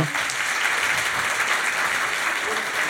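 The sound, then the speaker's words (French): Sustained audience applause for the Trilogue translation team, a dense steady wash of many hands clapping at even loudness throughout, with no distinct individual claps standing out. “on peut les applaudir, hein, vraiment.”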